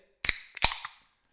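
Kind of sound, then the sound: human body sound, sneeze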